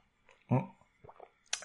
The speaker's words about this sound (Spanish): Me vais a permitir que le dé un trago de agua, ¿vale?